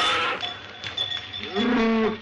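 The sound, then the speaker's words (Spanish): A herd of bulls, tended by three cowboys, lowing, with a deep, drawn-out moo swelling near the end over a steady wash of outdoor noise and a faint high metallic ring, like a bell, running throughout. “En una de esas, tres vaqueros pastorean una manada de toros.”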